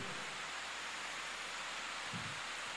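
Steady rain falls continuously at night, a soft, even hiss filling the background at low volume, with a brief low rumble near the end and no voices.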